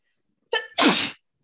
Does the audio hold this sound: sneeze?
yes